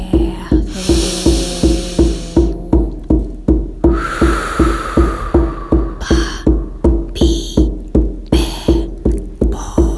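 Steady shamanic drumming for a guided drum journey, a deep booming beat repeating about twice per second without pause, joined now and then by bursts of hissy, rattling shaker sound. No one speaks.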